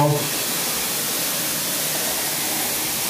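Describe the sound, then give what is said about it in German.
A coffee machine, set a little away from the speaker, makes coffee, hissing with a steady, broad rush of steam that holds constant for about three seconds, preceded by a brief low hum at the start, with no talking. “So, und ich mache mir jetzt einen Kaffee. Das Gerät steht jetzt hier, ein bisschen weiter weg von mir, aber es macht nichts.”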